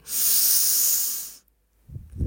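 A deep, drawn-in breath taken while pulling in the belly: one steady, airy hiss lasting over a second, then a brief silence and a couple of faint, low mouth sounds.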